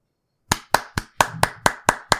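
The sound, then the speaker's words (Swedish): Eight sharp, evenly spaced hand claps in a steady rhythm, sounding like a single person's slow, deliberate applause, with no voices and silence before the first clap. “Det är, det är en fet applåd.”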